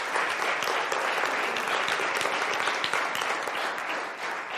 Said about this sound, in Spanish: Dale el aplauso a Dios, se lo merece.